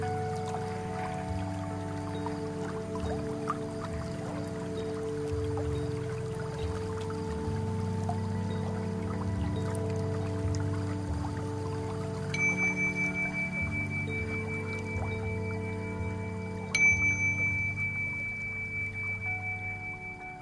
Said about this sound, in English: okay, that's the bell to end the guided meditation session.